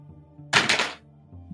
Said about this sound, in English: The lucky green dice roll of 45 under uh, 61. Oh, uh, 58, sorry, that's not quite right, but yeah, it's a regular success in any case.